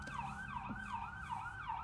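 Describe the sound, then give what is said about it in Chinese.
An American police car siren yelps loudly, its pitch sweeping up and down in quick repeated cycles, about four swoops in two seconds, over a low rumbling background. “哎呀，美国警车太烦了。”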